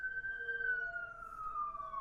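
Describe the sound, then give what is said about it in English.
An ambulance or police siren wails steadily, its tone sliding gradually lower as it moves past, with no one talking. “Sorry, I was waving goodbye to the ambulance or the police officers, whatever.”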